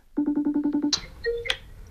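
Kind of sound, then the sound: signal or alarm, telephone ringing tone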